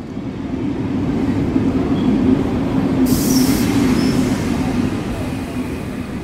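A train rumbles steadily at a railway station, its deep continuous roar broken midway by a brief, sharp high-pitched squeal or hiss. No one speaks.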